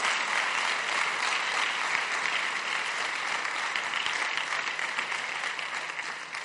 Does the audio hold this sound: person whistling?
no